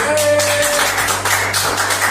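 A steady wash of applause from a crowd, dense and continuous throughout, with a low hum underneath and a sustained tone fading out early on.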